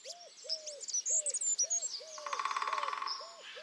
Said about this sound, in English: So it's you know it's got to be all right, and it's made purely out of many of the red list uh, endangered species and favourite ones um, in this kind of two and a half minute journey through birdsong.